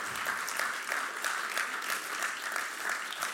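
A church audience applauds its intern steadily, a dense patter of many hands clapping at an even, sustained level with no voices standing out.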